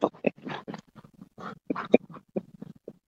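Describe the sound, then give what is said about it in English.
A dog on a beach makes a rapid string of short yelps and grunting whines, irregular and bursty over a few seconds, with no surf or other background noise audible. “Ah, doggy's on the beach.”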